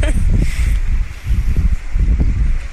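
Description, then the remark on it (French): Strong wind buffets the microphone outdoors on the slopes of the Croix-Rousse in France, a loud, steady low rumble that surges and dips over a few seconds, with no clear voices. “Il y a du vent”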